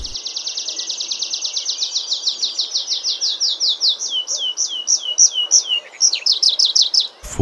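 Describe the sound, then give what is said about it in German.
A tree pipit sings a rapid, high trill of repeated notes that slows into longer, downward-slurred whistles, then a short final run. The song is loud and clear, with no talking. “Denn Baumpieper in der Stadt, das wird es eher wenig geben.”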